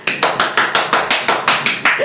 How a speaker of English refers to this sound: Okay, today's episode is actually quite exciting because it's a big milestone for us. It's our 10th episode. Clap.